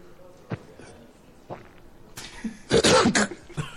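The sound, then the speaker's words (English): A man's throat rumbles and clears in a few short bursts, building to a harsh, cough-like hack near the end, moderately loud. “If you hear it, I like the the sound that he makes just before he like coughs, because you hear the.”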